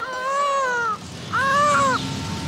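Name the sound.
newborn baby crying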